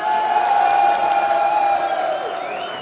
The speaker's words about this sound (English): Let's give him a round of applause.